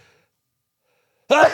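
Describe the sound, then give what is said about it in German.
A single sudden sneeze bursts out after a second of near silence, loud and breathy with a sharp onset and a brief voiced tail. “Gesundheit.”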